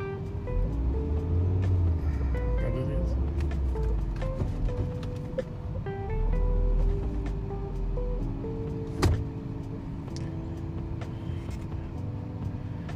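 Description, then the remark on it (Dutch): A car engine idles steadily in hot weather, heard from inside the vehicle, with a low continuous rumble, shifting electronic tones over it, and a single sharp clunk partway through, while the car shows a brake system fault and its parking brake stays stuck. Nobody speaks. “Storing remsysteem. Ja, nu doet hij denk ik.”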